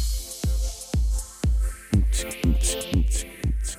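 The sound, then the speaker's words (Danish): An instrumental background music bed of the afternoon show on the Danish radio station Nova, with a steady four-on-the-floor kick drum, sustained synth chords, and brighter hi-hat accents joining halfway through; no voices, moderately loud and upbeat. “Og om eftermiddagsshowet, i eftermiddagsshowet, der lyder deres baggrundsmusik sådan her.”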